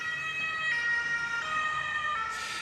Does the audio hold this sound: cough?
no